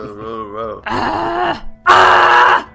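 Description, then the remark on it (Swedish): A voice imitates a monster's roar in three growling bursts, starting with a wavering moan, then a rough grunting roar, and ending with a louder, harsher, raspy bellow, all loud. “och när du försöker förstå situationen och vad som har hänt så hör du ett högt skrik. Ett, eller ja, ett, ett skrämmande dån i alla fall.”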